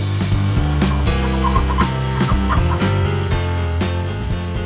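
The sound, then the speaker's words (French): A voice imitates a rooster's crowing, repeated several times in quick succession over loud, steady rhythmic music with a thumping beat. “3, 2, 1. Cocorico Kikiriki Kikiriki”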